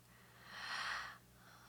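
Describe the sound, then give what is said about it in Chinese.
A single long, breathy exhale, airy and hissy, swelling to a peak and fading over about a second, with no talking, against a faint low hum. “可以把这个喘息剪掉。”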